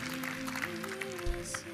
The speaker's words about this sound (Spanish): Dale fuerte ese aplauso, siento su presencia.